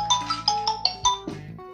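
A mobile phone ringtone plays a quick melodic run of bright electronic chime notes, about eight tones in a bouncy rhythm, fairly loud, with no voices over it.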